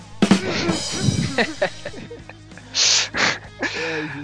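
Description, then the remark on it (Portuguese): A few rough, breathy coughs burst out in an uneven series, the middle ones loudest and harshest, with faint voiced murmurs and throat noises between them. “Cuidado com a tosse, hein?”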